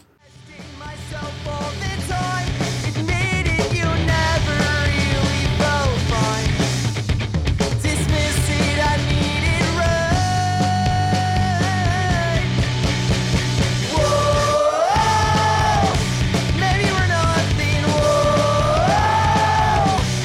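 A loud, dense rock song with a driving guitar riff over steady drums and bass, with raised, shouted-sounding vocals in the second half, playing continuously at full volume.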